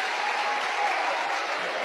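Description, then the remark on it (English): Steady, dense applause from two rival student sections in a gym at a Westwood Patriots basketball game in Sault Ste. Marie, Michigan, many hands clapping continuously at a constant loud level with no pauses. “the applause you hear are from the two student sections rivaling each other this evening.”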